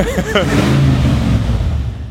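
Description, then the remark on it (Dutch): The V8 engine of a full-size (1:1 scale) remote-controlled car catches and revs, a loud, deep rumble that swells and holds steady for a couple of seconds before easing slightly. “En hij start al. Misschien kun je ook horen dat het een V8 is.”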